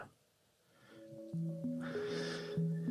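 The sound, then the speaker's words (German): Music fades in from near silence, sustained tonal notes stepping through a simple melody over held chords, growing fuller and fairly loud with a brighter, airy shimmer on top. “Ich spiele mal die Musik ein, weil sonst hört das nie da.”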